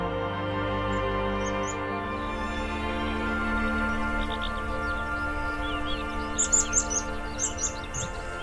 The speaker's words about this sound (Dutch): Ja, heerlijk hè. Die vogels, eigenlijk morgens al in de dageraad beginnen die meteen volop uit volle borsten fluiten. Het is echt gewoon heerlijk.